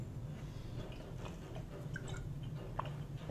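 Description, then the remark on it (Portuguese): Quiet sipping of water, with a few soft wet mouth clicks and small swallowing sounds over a low steady hum, and no talking. “Só beber um caroço d'água aqui.”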